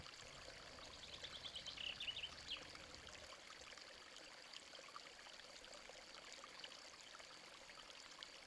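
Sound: stream of water flowing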